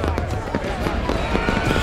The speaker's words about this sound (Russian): Ай! Это лампочки вокруг плаката стали взрываться от огня.